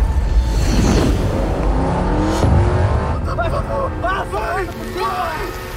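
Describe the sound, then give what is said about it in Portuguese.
A car engine revs and accelerates loudly, its pitch climbing in rising sweeps, as a car carrying three agents drives through a sugarcane field; voices begin talking over the rumble in the second half. “Os três agentes entram dentro do carro, seguem no canavial por onde Ricardo está correndo e o atropelam.”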